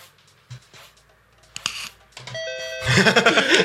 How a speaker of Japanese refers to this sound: ピンポンピンポンが合ってるかどうか分かんないけど